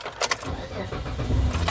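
A few quick, bright jangles of car keys, one cluster near the start and another near the end, over a steady low rumble like an idling car engine.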